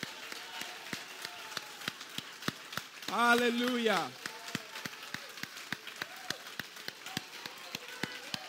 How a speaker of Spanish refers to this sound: Vamos, vamos. Ese es tu mejor aplauso.